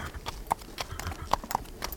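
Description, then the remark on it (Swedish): Horse hooves clip-clop in a quick, uneven rhythm, with several sharp hoof strikes standing out over a steady background of softer clopping. “Så, mycket riktigt, han stjäl en häst.”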